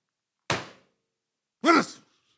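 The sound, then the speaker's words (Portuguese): A single dry, dull thump like a punch landing, cut short, followed a second later by a brief voiced grunt-like sound, then silence. It is a dry punch thrown out of fury, without shouting. “Mas então o que eu faço não é gritar, é só mandar um murro tipo, um murro seco, sem gritar.”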